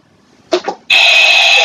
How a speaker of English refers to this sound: You have to hit the buzzer. You have to hit the buzzer. Hit the buzzer.